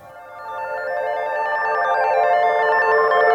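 A song intro opens with a bright, chiming synth melody that sounds a bit like a phone ringtone, growing steadily louder over a few seconds with no voices.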